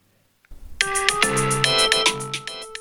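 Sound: alarm clock ringing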